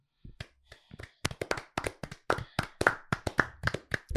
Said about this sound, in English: I know he's cheered up because he's actually clapping.